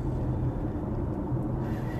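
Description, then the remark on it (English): Steady low rumble of a car cruising, as heard from inside the car: a continuous engine and road drone that holds an even level throughout, with no voices. “and uh, just cruising and you know in, in, the car.”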